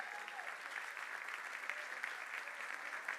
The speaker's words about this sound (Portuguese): Você pode dar um glória a Deus aí no seu lugar e aplaudir ao Senhor.